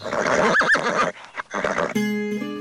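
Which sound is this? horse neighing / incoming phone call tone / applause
horse neighing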